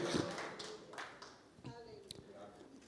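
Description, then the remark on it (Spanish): A church audience claps for the Lord, scattered hand claps rising and falling over a few seconds while voices murmur and call out underneath. “Dale el aplauso al Señor en esta hora.”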